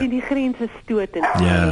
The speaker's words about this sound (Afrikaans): ekskuus, hier raak my honde baie opgewonde.